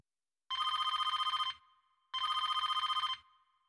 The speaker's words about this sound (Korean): 그런데 집으로 제과점 주인의 전화가 또 걸려옵니다.